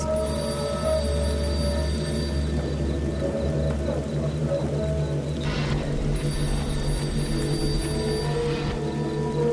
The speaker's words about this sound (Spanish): Escuchas un teléfono sonando a lo lejos.